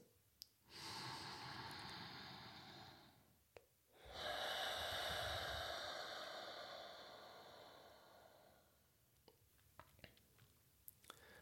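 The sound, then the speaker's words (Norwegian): A deep breath drawn in through the nose, followed by a long, steady exhale, clear, then quiet with faint clicks at the end. No talking. “Ja, puste rett og slett gjennom nesen, inn til midt i hjernen. Fylle alle deler av hjernen, og så tømmer du på utpust. Lang utpust.”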